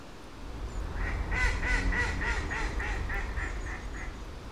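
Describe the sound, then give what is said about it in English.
A run of about a dozen rhythmic honking calls from Canada geese, with a greylag goose picking a fight among them, repeating steadily over a constant low rumble of outdoor background noise. “And um, um, oh dear, there's a, a wild goose now is looking for trouble with these Canadian geese.”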